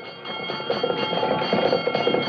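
The bell of an old-time ladder company fire engine, answering an alarm and coming into Main Street, clangs in quick, steady repetition over a rough rumbling background, continuous throughout.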